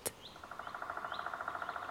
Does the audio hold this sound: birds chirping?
yes